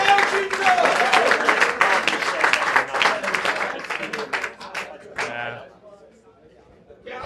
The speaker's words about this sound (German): Aber zunächst bitte ich erstmal schon mal für einen tosenden Applaus für die beiden